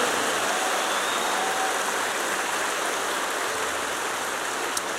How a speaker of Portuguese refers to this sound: Você consegue aplaudir? Aplauda Jesus por aquilo que Ele está fazendo.